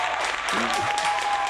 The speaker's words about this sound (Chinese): 来，现在掌声欢迎。